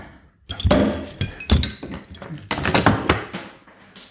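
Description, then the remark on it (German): Several glasses clink together in a toast to Radsalon number 100, sharp knocks spread irregularly over a few seconds, the last one leaving a bright ringing tone that hangs in the air. “Und Prost, Radsalon Nummer 100.”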